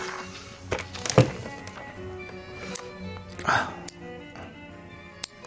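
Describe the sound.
A person at an office desk clipping fingernails with nail clippers: four or five sharp, crisp snaps at uneven intervals, with a faint murmur of voices and some rustling between the clicks.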